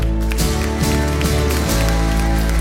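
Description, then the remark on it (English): An audience claps steadily, a dense, crackling wash of many hands kept up at a loud, even level over sustained low musical tones, with no voices standing out. “You got a hand clap?”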